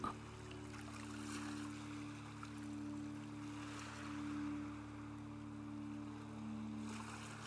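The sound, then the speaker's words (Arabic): Soft ocean waves break on the shore, turning white, and recede in slow, gentle swells, heard faintly over a steady low droning hum, with no voices. “تابع موج البحر وحاول تتخيل لون البحر وتشوف جماله ولونه الأزرق حس بالسعادة اللي بيديها لك شكل البحر والموج الموج بيتكسر على الشط وبيبقى لونه أبيض وبيرجع يتسحب تاني”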